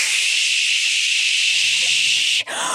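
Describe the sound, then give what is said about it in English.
A voice imitates the harsh, steady static hiss of an AOL dial-up modem connecting, held loud and unbroken for a couple of seconds before a brief cut and a fresh burst of noise. “Tonight's performance is Dial Up A- AOL Dial Up Noise”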